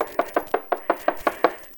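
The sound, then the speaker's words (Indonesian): A rapid series of about eight sharp knocks on a door, evenly spaced and fairly loud, with no voices during the knocking. “Itu ibu. Buka pintunya.”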